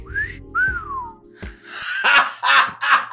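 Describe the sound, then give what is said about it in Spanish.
A voice imitates the moth man's loud telepathic whistle with two quick tones, one rising and one gliding downward, followed by several breathy, rasping bursts into the microphone. “El hombre polilla dejó escapar un fuerte silbido telepático”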